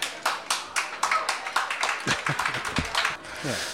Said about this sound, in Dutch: Geef hem daarvoor een applaus.